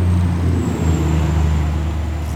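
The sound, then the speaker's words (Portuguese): A truck carrying several horses rumbles past on the road, its deep engine drone steady and loud throughout, with a faint high whine over the roadway noise. “Acabou de passar um caminhão na minha frente, com vários cavalos.”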